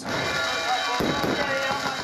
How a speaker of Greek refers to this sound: Βεγγαλικά στο μεγαλύτερο λιμάνι της χώρας.